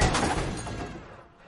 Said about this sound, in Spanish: Choca con un coche parado.